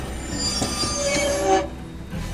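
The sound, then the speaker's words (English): Loud metallic squeal of train wheels braking as a train is stopped, over a heavy rail rumble, the shrill screech cutting off abruptly partway through and leaving a low mechanical rumble. “They'd make the engineer stop the train.”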